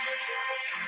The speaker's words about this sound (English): you know Joe is a big time football fan when that's his notification sound